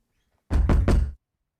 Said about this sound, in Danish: I Nordrup banker Anna på præsteboligens dør med faste slag.